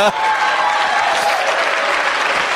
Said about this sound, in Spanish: ¡Un aplauso al cerdo!